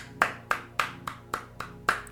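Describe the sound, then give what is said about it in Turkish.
A single person claps in a steady rhythm, about seven or eight sharp, evenly spaced claps over a couple of seconds, clear with no talking. “Evet size de alkış.”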